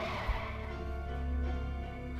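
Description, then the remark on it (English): Car tires screech in a steady, high-pitched squeal with a low engine rumble underneath as the vehicle, its sirens and lights switched on, speeds out of the street, holding for about two seconds at moderate loudness with no voices. “He turns his sirens on and his lights and he screeches out of the street.”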